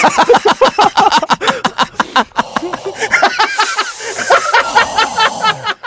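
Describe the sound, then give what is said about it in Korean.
Loud breathing hisses through the nose into the microphone in rapid bursts, mixed with snickering laughter throughout. “콧소리가 이렇게 크냐?”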